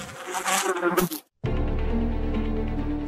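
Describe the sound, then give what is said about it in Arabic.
Dense, angry buzzing of a huge swarm of wild Himalayan giant honeybees (Apis laboriosa), loud, breaking off briefly for a moment of silence before the droning mass resumes at full intensity. Honey hunters are confronting the swarm to harvest its honey. “إنها مواجهة أسراب النحل البري الغاضب في أكبر تجمع له حول العالم ويطلق عليه اسم نحل الأبيس لابوريوسا من أجل صيد العسل الأخطر في العالم”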